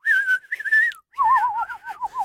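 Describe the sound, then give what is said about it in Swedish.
A pet bird named Sonja chirps with clear whistled notes: a steady rising call, a short pause, then a quick warbling trill that wavers up and down, with no voices. “Det finns många som twittrar men hon kvittrar, det är next level i den branschen.”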